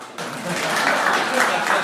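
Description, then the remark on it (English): A crowd breaks into applause, a dense, steady patter of many hands clapping that starts abruptly and holds at an even, fairly loud level to the end. “You can clap.”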